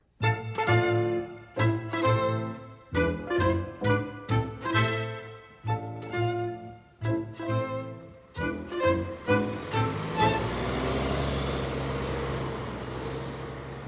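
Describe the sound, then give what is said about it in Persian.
A bus engine throbs in repeated pulsing bursts for several seconds, then settles into a steady, broad rumble of ride noise with a faint high whine, aboard a quiet, uncrowded bus on an early-morning ride to university on a cold, sunny day. No one speaks. “اتوبوس”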